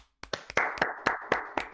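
A short round of applause: sharp hand claps in a steady, quick rhythm over a continuous wash of clapping noise, fairly loud, with no talking.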